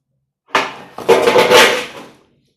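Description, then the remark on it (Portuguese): Cats knock things over at home: a loud clatter of falling objects in two bursts, a sharp crash followed by a longer rattling tumble that fades out after about two seconds, with no voices. “Os meus gatos derrubaram tudo aqui.”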